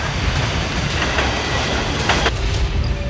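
A train rumbles past at the Roxy railway level crossing, its steady low roar overlaid with periodic clacking of wheels over rail joints, loud and continuous throughout.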